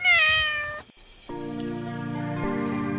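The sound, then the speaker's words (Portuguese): A cat meows twice: a short, bright, slightly falling meow, then after a brief pause a longer, lower, drawn-out meow that holds steady to the end. “Está começando agora mais um podcast com Gata Luna.”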